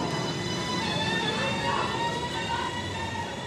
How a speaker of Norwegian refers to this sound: Tog som suser av gårde på dobbeltspor mellom Oslo og byene rundt, det er intercitysatsingen.